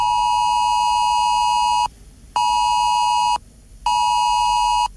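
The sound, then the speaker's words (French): An emergency alert tone on a mobile phone, received during an alert exercise on the coast, blares in loud, harsh electronic bursts, three long pulses separated by short gaps, with no voices. “Une notification apparaîtra sur votre écran avec ce signal sonore.”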